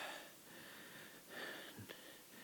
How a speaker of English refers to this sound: No wonder I'm having trouble breathing.